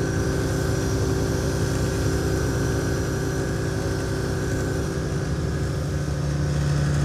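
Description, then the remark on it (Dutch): A small aircraft's engine drones steadily in flight over the Oldermaten nature area east of Zwartsluis, Netherlands, near the Roveen measurement site. It is a loud, constant low hum with a steady harmonic whine above it, holding the same pitch and level throughout with no voices. “We vliegen nu over de Oldermaten, een natuurgebiedje.”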